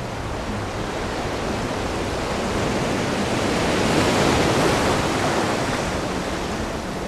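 A steady, hissing wash of ocean surf with one gentle swell building toward the middle before easing back, continuous, with no voices.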